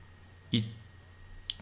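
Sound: computer mouse clicks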